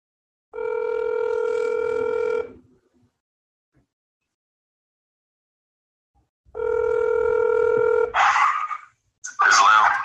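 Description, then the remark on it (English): A phone line rings twice as a call is placed from a second phone, each long steady electronic tone separated by a few seconds of silence, followed by brief muffled bursts like someone picking up and speaking over the line. “I'm gonna call him on my other phone, so you'll be able to hear him out.”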